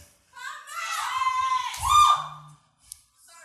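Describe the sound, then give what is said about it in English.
A loud, sustained shout rings out from one person for about two seconds, rising in intensity near the end, with faint crowd murmur around it and a brief clack afterward. “Scream it.”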